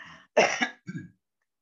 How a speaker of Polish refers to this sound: Tak się śmiałeś, że się zakaszlałeś, widzisz?